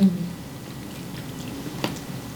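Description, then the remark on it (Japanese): Soft chewing of pizza, a steady wet mouthy munching with one brief crisp click near the end, low background hum and no talking. “ピザめっちゃうまい”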